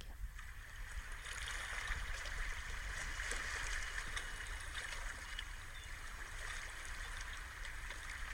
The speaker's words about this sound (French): Peut-être même que l'on va entendre les vagues.